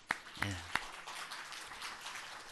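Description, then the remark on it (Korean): A few sharp claps ring out, then a soft, steady wash of audience applause continues for a couple of seconds as an audience welcomes a guest who has come from Korea. “박수로 한번 환영하겠습니다.”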